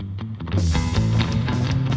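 A Mexican band plays an upbeat tune with steady drum hits and a warm bassline. It starts thinner, then swells fuller and louder after a moment, with no voices.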